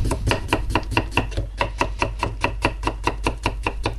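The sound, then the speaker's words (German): Potatoes being thinly sliced by hand with a knife for the next layer of a dish: a quick, steady run of about sixteen crisp knife strikes against a cutting board, even in rhythm, with no talking. “Und dann die nächste Schicht Kartoffeln. Ja. Auch wieder schön dünn schneiden.”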